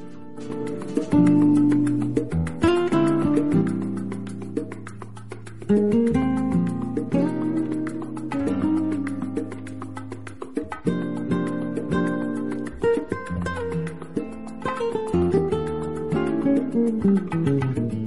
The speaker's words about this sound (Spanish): bueno, pues si les parece vamos a escuchar este tema que comentaba